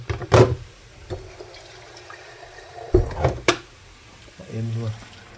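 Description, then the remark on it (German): A short splash of water, about 0.1 liter, pours into a cooking pot of apples to bring them to a boil, a brief rushing gurgle framed by a few sharp clinks and knocks, with a low murmur of voice toward the end. “Aber jetzt zum Ankochen tue ich so. Ich sag mal, einen Schuss 0,1 Liter oder so”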